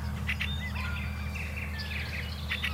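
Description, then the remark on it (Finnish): A fieldfare, coming closer again, calls in short, harsh chattering bursts at the start and end, while thin, high whistling bird notes drift through the middle over a steady low background rumble. “No nyt räkättirässäs tulee taas lähemmäs.”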